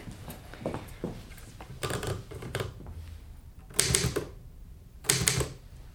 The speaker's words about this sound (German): Die Schreibmaschine.